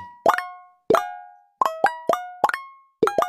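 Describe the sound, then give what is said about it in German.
Minesweeper game sound effects from Minesweeper being played on Google: about nine bright, bubbly plopping blips, some in quick pairs, clean with short ringing tails and no talking. “Vielleicht habt ihr es gehört, ich spiele gerade auf Google jetzt Minesweeper.”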